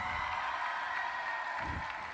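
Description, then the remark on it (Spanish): An audience at the 2020 murgas contest in Pontevedra applauds the third-prize winner, Tropa de Moncha Caralla, a dense, even wash of many hands clapping that stays loud for about two seconds without pause or voices. “Aplausos.”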